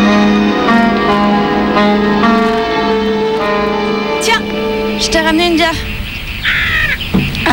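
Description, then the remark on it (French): A person loudly imitates a rooster crowing, one long, strained, wavering cry lasting several seconds, then it breaks off into a few brief scattered vocal sounds. “Quand même l'animal euh, un peu symbole de la France, le coq. J'aimerais bien savoir quel son il fait dans vos langues.”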